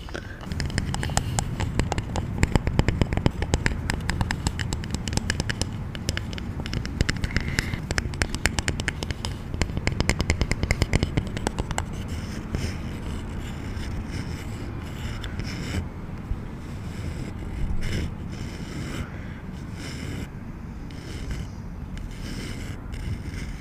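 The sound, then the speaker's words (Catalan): Decorative wooden balls, kept at home in a family library, roll and rattle inside a wooden box, a dense stream of knocks and clatter that is busiest in the first half and then thins into scattered, softer rolling. “els primers objectes són aquests són boles de fusta que no em pregunteu com però les tenia a casa de decoració a la biblioteca de, de la família i són boles dins d'una capsa que també és de fusta”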